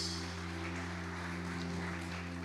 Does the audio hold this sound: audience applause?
yes